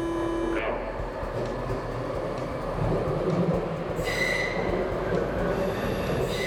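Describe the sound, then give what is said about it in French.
A Lausanne M2 metro train rumbles steadily along its rails toward Flon station, with a constant low roar, brief tonal whines, and a short high wheel squeal partway through. “Assurez-vous de rejoindre le bon quai et prenez le M2 jusqu'à la station Flon.”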